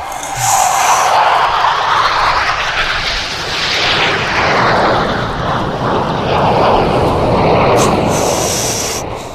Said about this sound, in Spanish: aviones volando para saludar a los trabajadores de la salud. Y la gente que trabaja en primeros auxilios, papá.